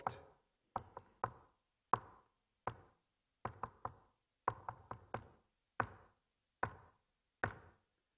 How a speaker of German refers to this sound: Und was sie dann gemacht haben dort, und jetzt könnte ich das hier klopfen, weil ich habe mir den Morsecode hier aufgeschrieben, sie haben einen Morsecode geklopft.